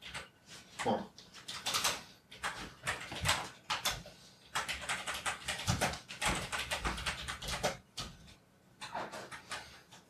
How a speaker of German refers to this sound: tippt deine Freundin auf einer alten IBM-Tastatur? E Nö, das ist eine, Logitech äh, Gaming-Tastatur. Warum ist denn die so laut?